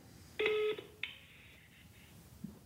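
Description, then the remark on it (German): Electronic mobile phone keypad tones as a randomly generated number is dialed to make a call: a longer beep followed by a short one that rings out briefly, clear, with no talking. “Ungerührt lässt er sich vom Zufallsgenerator eine neue Nummer aussuchen, tippt sie in sein Handy ein und ruft an.”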